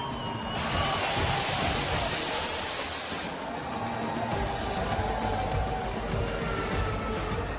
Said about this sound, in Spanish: Vean la manera de subir, como todo un rockstar, subiendo en un elevador, parado encima de su vehículo. ¡Wow! Por eso el Gran Premio de México es el Gran Premio de México. Escuchen cómo le grita la gente.